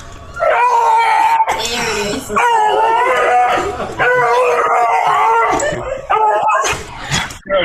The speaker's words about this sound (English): dog Geraldine, who starts making the noise of a TIE fighter